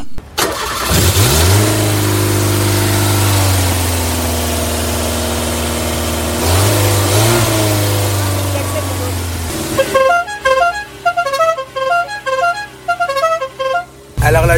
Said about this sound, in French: Il nous a proposé d'aller faire un tour dans son bolide, la bien nommée 4L Savane.